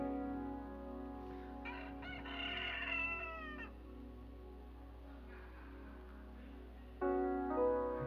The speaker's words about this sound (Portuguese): Nessa hora, o galo canta. O galo canta.